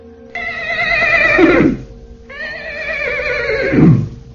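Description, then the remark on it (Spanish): Two loud horse neighs in succession, each a shrill quavering whinny that drops into a lower snorting rumble at the end, with a short pause between them and no talking. “El monstruo aquel tomó la forma de una bestia, de un caballo.”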